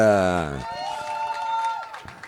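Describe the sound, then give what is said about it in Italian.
An audience breaks into applause and cheering to welcome a guest on his first visit to the show, after a brief loud voice, the steady clapping continuing for a couple of seconds with a sustained high whistle-like tone ringing over it. “allora signore e signori accogliamolo con un grande applauso è la prima volta che viene qui al salotto”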